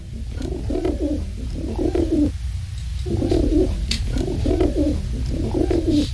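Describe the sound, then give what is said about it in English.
A pigeon or dove coos in low, throaty phrases, five repeated bursts with a brief pause midway, steady over a faint background hum. “Well, that's the sound of a dove or a pigeon.”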